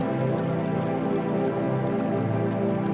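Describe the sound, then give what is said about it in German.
Fountain water splashes and trickles gently and steadily in a shady atrium garden with cypress and pine trees, a continuous soft burble with no voices. “Ein Brunnen plätschert sanft vor sich hin.”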